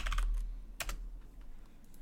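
Hard, clattering keyboard typing: a quick burst of sharp keystrokes, then a loud cluster, followed by lighter scattered taps fading out, with no voices over it.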